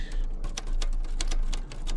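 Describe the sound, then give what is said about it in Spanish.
Rapid typewriter keystrokes clack in an uneven rhythm, a dozen or so sharp mechanical taps, with no voices, as Farmer Brown types on his own typewriter. “El granjero Brown sacó su propia máquina de escribir.”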